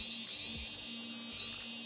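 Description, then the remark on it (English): A game controller's vibration motor buzzes steadily on its third vibration setting, a continuous electric hum with a harsh, rattly high edge that holds at a fairly strong, even level throughout, with no voices. “So we'll probably end up doing like be keeping it on that, and then vibrate three.”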